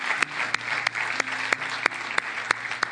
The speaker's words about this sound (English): I want you to remain standing, and let's just give them just a round of applause and thank them for serving our country.